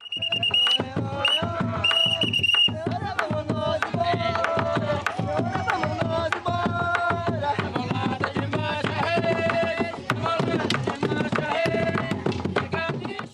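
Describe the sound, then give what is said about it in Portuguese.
The carnival group a band plays loudly and without pause, its musicians singing verses that signal the bloco must depart, over steady, driving drum hits, with bright sustained tones running through the music. “Para sinalizar que o bloco precisa partir, é cantado pelos músicos os seguintes versos.”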